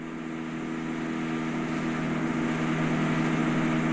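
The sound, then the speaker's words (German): A power drill runs continuously for the whole stretch, a steady, fairly loud motorized whine and drone without pauses, coming from somewhere in the building, with no voices. “also ich weiß, Flop fällt dir wahrscheinlich schwer, während hier gerade gebohrt wird.”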